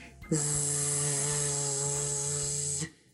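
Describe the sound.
A raw laryngeal buzz, the pure sound of the vocal folds: one steady, unwavering droning tone held for about two and a half seconds, fairly loud, with nothing else around it.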